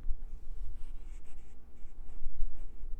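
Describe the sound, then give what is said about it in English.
Close, rapid sniffing and snuffly breathing from a male pet with its nose stuck right up to the microphone, a series of short breathy puffs in an uneven rhythm over a low rumble, with no talking. “Y'all, I said that and he stuck his nose right up to the microphone to give you a sample.”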